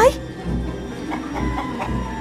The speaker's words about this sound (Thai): ข้างนอกพระราชวังพระราชาไก่โต้งก็ได้คันไม่หยุดจนพระราชินีต้องชะโงกหน้าออกมาจากหน้าต่าง โอ้ยเงียบนะ เจ้าไก่โต้งแกเงียบเดี๋ยวนี้เอ้ย